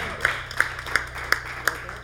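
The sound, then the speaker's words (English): A band member claps for himself during band introductions at a live show, five claps in a slow, steady rhythm, each a sharp crisp snap over a low, constant background hum. “Can I clap for myself?”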